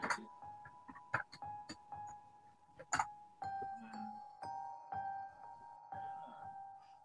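A repeating, bell-like chiming melody, the theme music of the film The Exorcist, plays alone, with sustained ringing tones and sharp struck accents recurring every second or so, at moderate volume with no voices.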